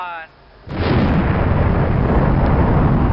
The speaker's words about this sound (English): You know what I really like about this episode? The way we have just the soothing sounds of a space shuttle just playing in the background through the whole thing. Just those little beeps, space